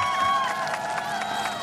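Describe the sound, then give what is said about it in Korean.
A crowd claps and cheers in a steady, dense wash of applause at a KBS radio summer special show held in the front yard of the KBS main building's open studio. Faint sustained musical tones linger underneath for the whole short stretch. “다시 한번 박수 부탁드릴게요.”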